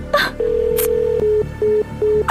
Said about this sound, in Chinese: 阿赵，快听电话！